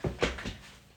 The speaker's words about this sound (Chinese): 等一下，我狗要出门，我给它开门。